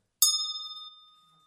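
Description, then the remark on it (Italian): A single clear strike of a small hand bell rings out, its bright metallic tone sustaining and slowly fading away over about a second, with no other sounds. “Una campana. Ok? Bene. Perché una campana? Perché suona?”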